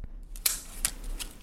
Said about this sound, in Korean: 어 이분 찰지게 잘 섞으시네. 정답은요, 고스톱 혹은 화투라고 보내주신 분들 모두 정답 처리해드리고요.